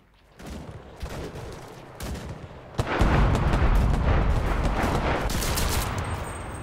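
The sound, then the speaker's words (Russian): Video game combat with bursts of gunfire and heavy artillery booms, sparse shots at first, then swelling into a dense, continuous barrage of loud blasts and rattling fire with no voices. “Тут, тут война.”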